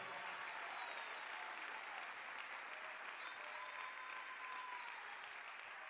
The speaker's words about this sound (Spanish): Lo que le están esperando le da un fuerte, fortísimo aplauso al Señor en este lugar.